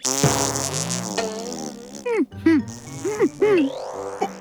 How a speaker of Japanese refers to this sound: 兄貴、なんかおなら臭くないすか？臭い。俺はおならしてないぞ僕もっすじゃあ誰なんだ